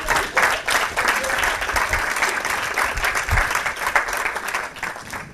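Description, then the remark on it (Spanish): A crowd applauds steadily for Pedro Vivar, author of a motivational book, a dense wash of many hands clapping at once that holds at a fairly even loudness for several seconds without anyone speaking. “Un aplauso para Pedro, sí, sí, sí.”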